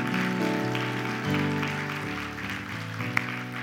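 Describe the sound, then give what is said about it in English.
An audience claps for God during a church service, a dense, steady wash of noise, mixed with loud sustained keyboard or organ chords that shift pitch every second or so. “Give God a good clap like you're not mad about it.”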